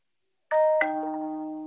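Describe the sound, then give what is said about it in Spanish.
A smartphone's two-note activation chime plays alone as the TalkBack screen reader is switched back on with both volume keys: a bright first tone, then a second tone a moment later that rings on with a smooth, sustained fade. “Con la, y lo vuelvo a activar con las dos teclas de volumen.”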